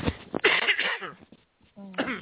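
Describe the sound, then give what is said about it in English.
A few harsh coughs burst out in quick succession, loud and raspy, followed by a short strained vocal sound and one more rough cough near the end. “and it's actually, excuse, can I can I just cough a minute?”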